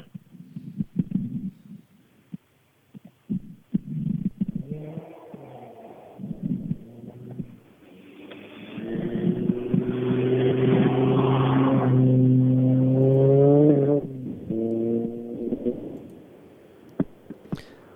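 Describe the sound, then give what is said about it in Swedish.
A rally car, a Nissan Almera GTI driven by a Norwegian crew, roars past with a droning, buzzing engine note that swells loudly, holds with slight shifts in pitch, then fades. Scattered low thumps come before it. “Lät som han åkte förbi.”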